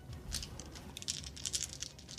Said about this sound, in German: Trotzdem bräuchte ich von dir einen stark und Schnellangriff dann. Stark und schnell, ich würfel auch wieder.